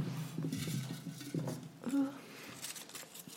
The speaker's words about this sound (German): Wie sie mit ihren kleinen Fingern in diesem Glas rumfingert.